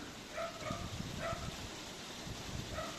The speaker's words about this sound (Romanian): Sunt undeva la o familie, în afara Timișoarei, într-un loc, să zicem, liniștit, doar că la vecin se aude un câine, așa că o să avem și fond muzical.